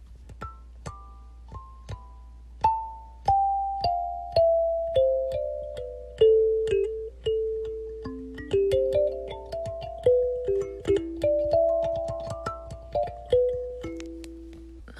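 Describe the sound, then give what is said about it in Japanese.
A newly bought kalimba, bought at the Shimamura music store in Loft in Umeda, is plucked note by note, its bright metallic tones ringing and decaying in a slow, wandering melody that moves down and back up in pitch, with no voices present. “昨日ね、カリンバっていうね、楽器をね、買ったんですよ。ちょっと音を鳴らしてみます。”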